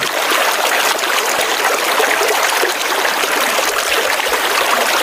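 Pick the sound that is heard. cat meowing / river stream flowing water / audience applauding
river stream flowing water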